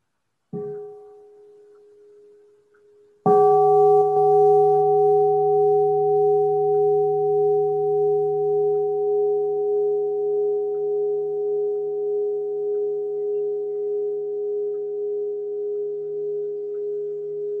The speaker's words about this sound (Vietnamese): xin sư cô thỉnh một tiếng chuông cho mọi người buông thư